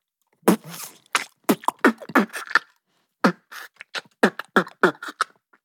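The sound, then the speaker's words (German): A single voice beatboxing, someone practising it, making quick, punchy mouth drum sounds in a steady groove, with a short pause midway before the rhythm picks back up, fairly loud. “Das nennt man übrigens Beatboxen. Quasi Schlagzeug spielen mit dem Mund.”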